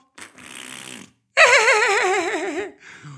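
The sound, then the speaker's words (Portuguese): A voice blows two raspberry-style fart imitations as a playful game with a young child: a short buzzy burst, a brief pause, then a longer, louder wobbling blurt that trails off. “Porque ele agora gosta muito de uma brincadeira que é dos puns, não é? Dos peidos.”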